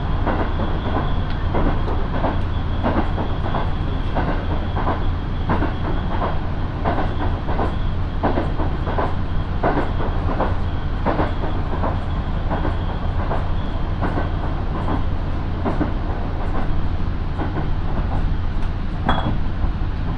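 A local passenger train on the Minobu Line in Japan, running from Minobu to Ichikawadaimon, rolls steadily along the rails, heard from inside with a constant low rumble, rhythmic clacking over joints and occasional light rattles and clinks, no voices.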